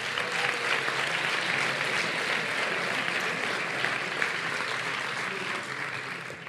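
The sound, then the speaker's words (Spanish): Sustained applause from a large audience at an awards ceremony, greeting the four nominees in a music category; a dense, steady clatter of many hands clapping at even loudness for several seconds without pause. “Un aplauso para ellos.”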